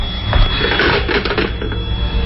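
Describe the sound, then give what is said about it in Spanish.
An old telephone bell rings in a continuous, rattling metallic trill that fills the whole moment, loud and steady, with no voices. “Maldito teléfono.”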